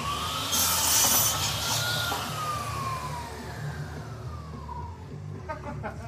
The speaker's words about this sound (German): Weißt du, weißt du, weißt du, ich, ich finde es nicht gut, dass du mit, mit, mit 1,8 Promille eine Handsäge bedienst.